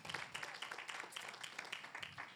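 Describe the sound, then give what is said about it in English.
A crowd applauds steadily, a dense patter of many hands clapping at once, fairly soft, continuing without pause and with no voices over it. “And one week, you guys don't have to clap this whole time.”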